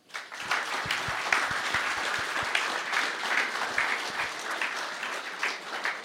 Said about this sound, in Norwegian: Og eh, først må vi si tusen takk til Løten Jeger og Fisk og til Godshuset, som har invitert oss. Syns vi kan bare starte med en skikkelig applaus til dem.